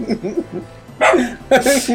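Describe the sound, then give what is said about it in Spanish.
A female house dog barks twice, loud, the two sharp barks about half a second apart, after a quieter stretch of low murmuring voices. “el ladrido que acaban de escuchar es de Queen”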